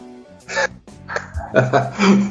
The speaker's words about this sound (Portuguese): esse som lindo de passarinho ao fundo.